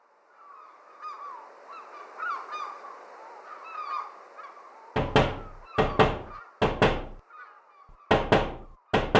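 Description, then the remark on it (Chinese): A soft, continuous chatter of honking calls from several young swans outside the window of a houseboat on the sea, then about six loud, sharp knocks in an irregular rhythm as they tap against the window. No one speaks. “哎，是窗户传来的声音。几个年纪看起来和我一样大的天鹅小朋友，看到我们开窗后，吓得几乎都跑走了，只留下一个游得比较慢的天鹅，”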